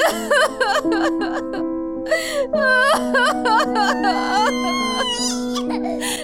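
human body sound, person crying and whimpering

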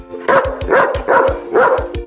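animal, dog barking

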